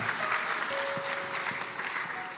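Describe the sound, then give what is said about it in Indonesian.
A crowd claps steadily in sustained applause, a dense wash of overlapping hand claps at fairly even loudness with a faint tonal hum underneath, no voices standing out. “Tepuk tangan buat bapak-bapak utamanya. Tepuk tangan bapak-bapak.”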